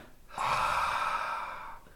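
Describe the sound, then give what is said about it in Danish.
A single long, breathy exhale, a voice imitating a last breath leaving a body as a pupa is pulled out, rising suddenly and trailing off over about a second and a half, fairly loud with no talk. “altså et sidste åndedræt, der ja. lige øh, forlader kroppen.”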